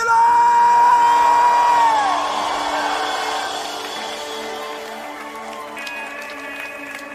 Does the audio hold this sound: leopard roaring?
no